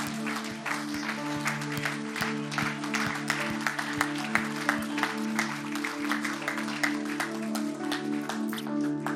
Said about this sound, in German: Gott, dieser Tag gehört dir, du bist groß und wir machen Standing Ovation für Gott.